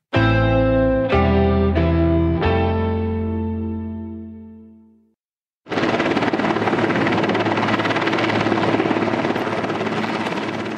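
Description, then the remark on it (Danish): A few bright chime-like tones ring and fade, then after a short pause the loud, steady roar of Marine One, President Trump's helicopter, landing on the lawn of the White House takes over, continuous, with no voices. “Der kommer Marine One, min sanden, præsident Trumps helikopter.”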